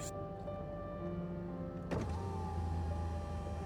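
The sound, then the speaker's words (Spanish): At night, a car window is lowered with a steady electric motor whine lasting about two seconds, ending in a soft thunk, followed by a louder low rumble of the car with no talking. “Mi padre bajó el vidrio decididamente, sacó su cabeza por la ventana”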